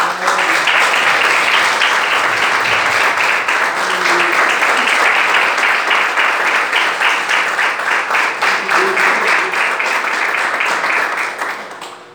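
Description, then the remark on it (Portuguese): A large crowd applauds Jesus loudly and steadily for about twelve seconds, dense overlapping claps with some rhythmic surges, fading slightly at the very end. No one speaks over it. “Você pode aplaudir a Jesus.”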